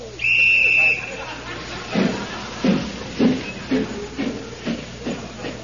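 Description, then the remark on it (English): A steam locomotive on the Snowdon mountain railway gives a short shrill whistle, then settles into slow, steady chugging, each heavy puff of steam evenly spaced as the engine labours slowly up the side of the mountain. “And so, as the train chugs slowly up the side of the mountain, we find in the engine the driver and fireman hard at work.”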